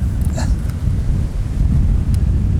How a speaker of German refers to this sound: Ich hoffe, das ist jetzt nicht zu windig, aber meistens klappt das ja ganz gut. ja, hier zieht es gerade wirklich enorm.